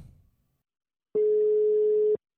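A single steady telephone ringing tone, the kind heard while a call connects, sounds clearly for about a second after a short stretch of near silence, with no voices.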